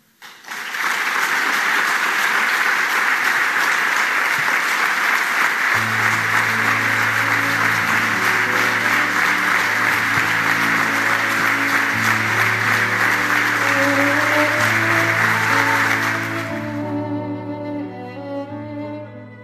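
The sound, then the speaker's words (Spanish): A large auditorium audience applauds Messi steadily and loudly at his farewell from Barça for about sixteen seconds while instrumental music rises beneath the clapping. The applause then fades out, leaving the music playing alone. “el aplauso sostenido, un auditorio rendido a sus pies.”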